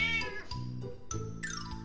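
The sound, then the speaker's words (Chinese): A large cat wearing a collar, named Mimi, meows loudly several times in quick succession in a small supermarket, each cry bright and tonal, the last one sliding downward in pitch. No one speaks. “有一只带项圈的大猫，它的名字跟老鼠米米差不多，叫咪咪。”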